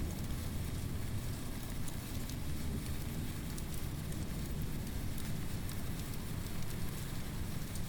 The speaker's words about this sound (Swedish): jävla oväder verkar det vara i alla fall